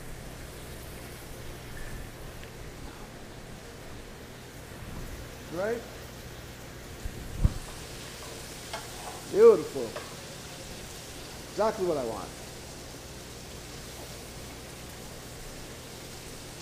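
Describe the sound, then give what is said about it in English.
Steady hiss and crackle of food sizzling in a hot pan runs throughout, while a man briefly speaks a few short phrases over it. “There's a sizzle, that's what you want to hear.”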